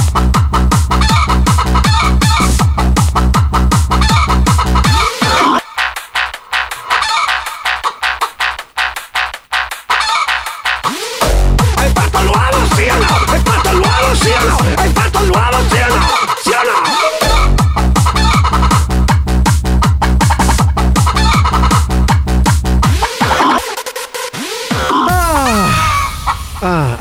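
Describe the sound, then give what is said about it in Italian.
A novelty hen song plays during a live broadcast: loud, rhythmic hen clucking and squawks set to a thumping dance beat with heavy bass, the groove briefly dropping out a few times before kicking back in. “Allora, intanto ascoltiamo uno dei successi della gallina.”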